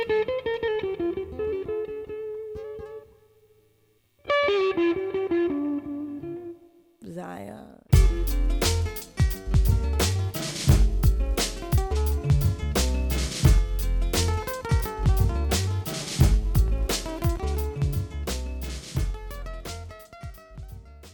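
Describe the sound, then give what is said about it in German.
A song played on the radio station RBB Kultur: a woman sings a slow, unaccompanied melodic line that pauses briefly, then a full band with punchy drums and deep bass comes in, her song continuing over a steady beat. “wie sie das singt, eine unglaubliche weibliche Ausstrahlung”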